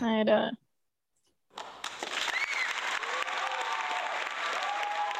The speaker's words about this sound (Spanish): Eso faltaba un aplausos para, para poder ir cerrando.